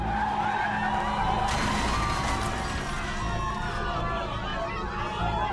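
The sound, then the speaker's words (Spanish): A car's tires skid and squeal loudly and continuously as a driver drives into people leaving a theater on a Sunday night in Mendoza, Argentina, and crashes into the main entrance, with a sudden harsh burst of noise early on, over a dense background of crowd chatter. “Las víctimas junto con cientos de personas acudieron a disfrutar de la obra, cuando de pronto un automovilista se lanzó contra ellas y se estrelló en la puerta principal.”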